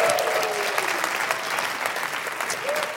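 An audience applauds steadily for about three seconds as a vote for a performer, a dense, even patter of many hands clapping, with a few faint cheers and whoops rising above the clapping.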